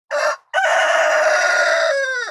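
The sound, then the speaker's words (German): A rooster crows loudly, a short opening note followed by a long, harsh, rough-edged call that drops in pitch at the end. “des anderen Schrei ist eher rau.”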